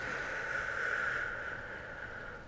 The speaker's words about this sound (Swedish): Gud min näsa piper. Jag ber om ursäkt för det, det låter jättekonstigt.